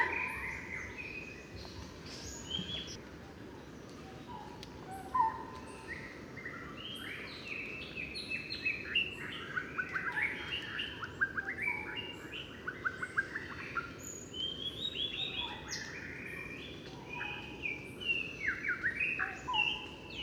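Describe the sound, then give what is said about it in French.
A shama sings rich, varied phrases over a dense chorus of barbets calling steadily in the background, with a continuous low forest hum, in the forest of 30 to 40 metre tall trees within the Angkor temple grounds near the Bayon temple; no one speaks. “Alors bien sûr, c'est un oiseau au chant merveilleux, incroyable. Et derrière, on entend les, les barbus,”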